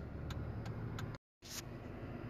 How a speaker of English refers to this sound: I'm in the car heading home from work today.